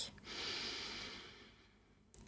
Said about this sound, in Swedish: Tar ett djupt andetag.